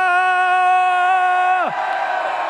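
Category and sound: crowd, audience shouting together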